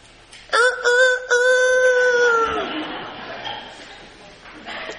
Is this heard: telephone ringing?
no